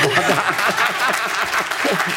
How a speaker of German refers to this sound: Jetzt Applaus für dich.